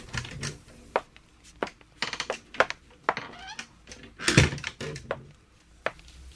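A door is opened up close: a series of sharp clicks and rattles from the latch and handle, then a louder creaking thud as it swings, followed by a few lighter knocks.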